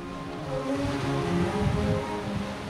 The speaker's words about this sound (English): Down below, about 30 feet or so, the frigid water crashes up against the pier's concrete posts.